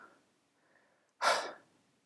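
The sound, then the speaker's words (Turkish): Heavy, out-of-breath breathing: faint breaths at first, then one loud, rushing exhale like someone catching their breath. No one speaks. “Uf, çok hızlı geldim buraya kadar. Nefes nefese kaldım.”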